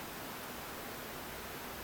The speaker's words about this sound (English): I hear a bunch of static.